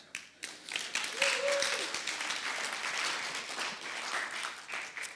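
A church audience breaks into applause for itself, dense overlapping clapping that swells quickly and holds steady for several seconds, with a brief voice or cheer rising above it early on.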